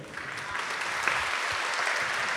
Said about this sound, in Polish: E, w takim razie, skoro na imionach kończyliśmy trochę, a cała rzecz wyszła nam pozostała jako didaskalia, to bardzo duże brawa dla Magdaleny,